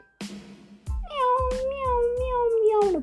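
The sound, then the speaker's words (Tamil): A single long, drawn-out cat meow rises and slowly falls over about two seconds, loud and close, set against a steady series of low thumping beats. “பூனை உள்ளே போய் இது மாதிரி என்னோட நண்பன் நான் டெட்டி பியர் எப்போ போனாலும் தூங்கிக்கிட்டே இருக்கான்”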